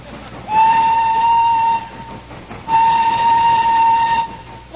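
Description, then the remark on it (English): A steam train chugging slowly up the side of a mountain lets out two long, steady whistle blasts, each over a second, separated by a short pause, with a low rumbling noise running underneath throughout. “And so, as the train chugs slowly up the side of the mountain, we find in the engine the driver and fireman hard at work.”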